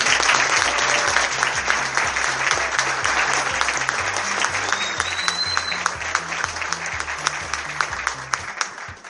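Sustained audience applause, dense clapping from many hands at a steady loud level, with a rhythmic low beat of music underneath and a few distinct claps standing out as it tapers at the end.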